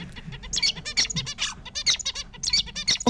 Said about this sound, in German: Der Gesang bei Zebrafinken ist nicht angeboren